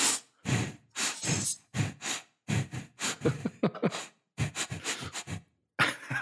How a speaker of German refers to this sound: Das war rein. Das war abwechselnd. Raus rein, raus rein.